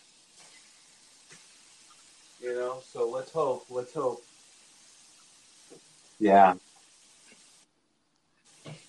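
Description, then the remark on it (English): A steady, faint sizzle of burgers cooking on a grill hisses in the background throughout, while a person talks briefly in the foreground. “That's uh I just threw some burgers onto the grill.”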